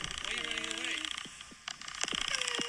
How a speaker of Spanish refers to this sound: Lo van a poner ahora una langosta a hervir. La langosta está viva. Y este es el sonido que hace la langosta cuando la ponen en agua hirviendo.